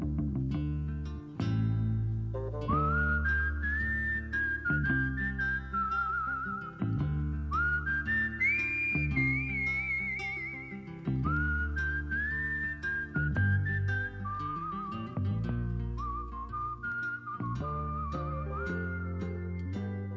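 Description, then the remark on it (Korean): A clear, sustained whistled melody glides over a steady band accompaniment with a driving bass rhythm, a western-style song from the soundtrack of Quentin Tarantino's film Django. No one speaks. “언제나 그렇듯이 타란티노 영화들은 음악이 참 좋죠. 그 중에서 한 곡 듣겠습니다.”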